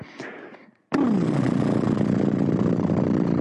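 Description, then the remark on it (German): After a short breathy sound and a brief pause, moistened lips blow out in a loud, sustained, fluttering trill, like a horse that has eaten too much snorting, buzzing steadily like a small idling motor. “Dann befeuchte bitte deine Lippen, befeuchte bitte deine Lippen. Und wie so ein Pferdchen, das zu viel gefuttert hat,”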